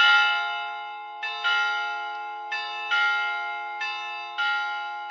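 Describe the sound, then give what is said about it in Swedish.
Church bells of Råslett church, set ringing by a priest, ring out over the town square and centre in a steady, overlapping peal, drowning out speech. Each new strike lands roughly every second and a half over a long shimmering hum. Loud and resonant. “Han räcker inte att säga så mycket förrän han blir avbrutt av kyrkklockor de brøler utover torget og sentrum og overdøver alt som blir sagt.”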